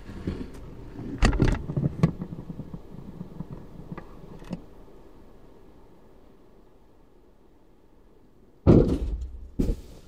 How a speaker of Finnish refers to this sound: Tämä äänitys tapahtuu tuuletusikkunan välikössä. Nyt mä laitan tämän sisäpuolen luukun kiinni.